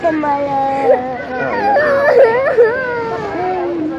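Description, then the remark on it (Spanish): Children in a detention center wail and sob continuously in high, wavering cries that rise and fall for several seconds, loud, with no clear speech over them. “y si no has escuchado la grabación que se emitió esta semana, que se hizo pública semana, esta semana, de estos niños llorando en un centro de detención, aquí lo tienes.”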